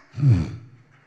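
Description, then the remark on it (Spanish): A voice imitates a single snore on an inhale, a loud, rough, rattling intake of breath that swells quickly and then trails off into quiet. “Porque hay gente que ronca cuando agarra el aire, así de.”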